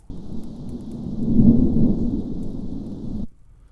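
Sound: thunder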